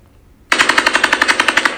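A sudden burst of rapid AK-47 automatic rifle fire, with about fourteen sharp, evenly spaced shots, loud and crackling, after a brief quiet moment, with no voices.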